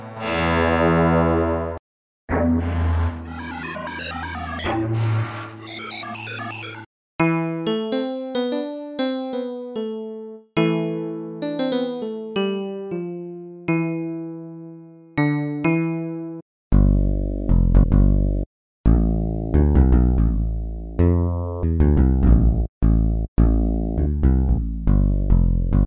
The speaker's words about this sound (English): you can create entire songs using just this synth. It has some amazing 80s sounds in it, and if that's something you're into and looking for, you can get Nils K1V on Mac, Windows, and Linux. Let's give it a listen.